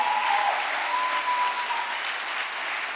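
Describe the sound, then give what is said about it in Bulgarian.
A church audience applauding steadily during a sermon to give glory to God, a dense, even wash of many hands clapping at a fairly loud level, with a faint thin whistle-like tone briefly audible within it. “Ако отнемаш 30 секунди от тази проповед с ръкопляскане, поне и като че даваш слава на Бога.”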